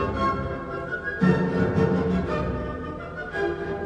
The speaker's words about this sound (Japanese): 続いて明るい蝶で蝶々で、えー、2つ目の主題が出てきますここからですねこの裏でも弦楽器がタンタンタンタンずっとやってます